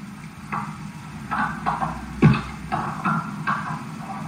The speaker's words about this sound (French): On dirait d'un son de sabot.